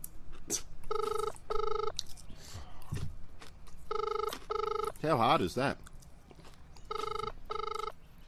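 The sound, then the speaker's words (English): An outgoing phone call rings in a double-burst pattern, repeating three times at steady intervals, with the line engaged, while people talk and murmur over it. The rings sound clear. “Ringing once, engaged. Ringing a second time.”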